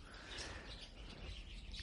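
Faint bird chirps and tweets drift over a steady background hum of a café full of plants, birds, turtles and cacti, on a hot, very sunny day at half past eleven in the morning, soft, with no one speaking.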